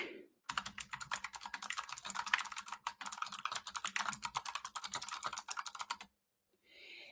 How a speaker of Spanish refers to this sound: Oigan que se escucha como matraca mi teclado.